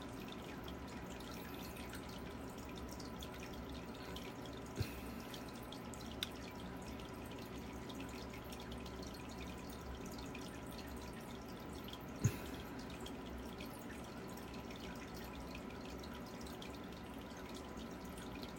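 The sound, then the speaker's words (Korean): Steady trickle of running water from an aquarium fills the background, with a few sharp drips standing out now and then, like water splashing into a tank. No one speaks. “저의 아쿠아리움 소리예요.”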